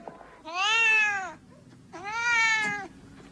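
Two long, drawn-out cat meows, one after the other with a short pause between, each loud, rising then falling in pitch, with no voices.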